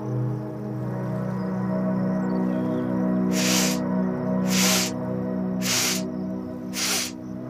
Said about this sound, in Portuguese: E a gente vai novamente fazer a respiração quatro quatro quatro